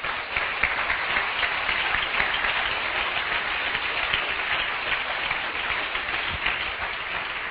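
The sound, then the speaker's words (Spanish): A crowd applauds loudly and steadily for a mentor, an executive diamond of the business, a dense, continuous wash of many hands clapping at once that holds an even level throughout without fading or building. “para quien pido un fortísimo aplauso”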